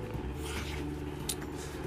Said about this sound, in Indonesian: sorry backgroundnya kipas angin dong panas